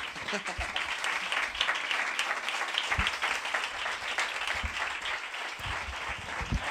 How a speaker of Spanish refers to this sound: Pues con este aplauso se va a subir la persona que se va a tocar un, el siguiente tema